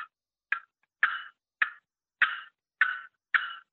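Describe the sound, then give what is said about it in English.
A series of seven sharp, short clucks made on a short turkey box call from Jeff McCamey, evenly spaced about half a second apart, loud, with no talking. “then you can cluck.”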